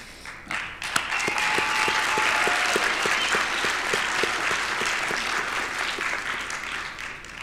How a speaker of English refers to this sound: Before we conclude, I want to applaud the faculty and staff who have worked tirelessly to prepare the next generation of leaders. want to applaud all of the family and friends, both in the audience, at home, watching online, or, or stuck at work.